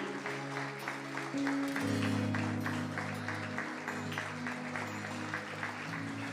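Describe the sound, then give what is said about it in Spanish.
Steady applause from a crowd, a dense, continuous patter of many hands clapping over sustained low keyboard or organ chords that shift pitch partway through. “que tu amor es maravilloso y es digno de ser puesto en alto y digno de ser exaltado, digno de recibir todos nuestros aplausos, nuestro reconocimiento, nuestro amor.”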